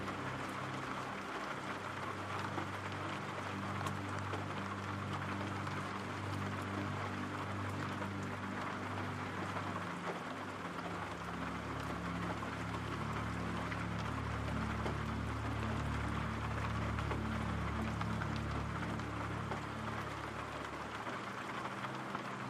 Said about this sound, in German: Dein Atem geht ruhig, und gleichmäßig, während du den beruhigenden Regengeräuschen lauschst.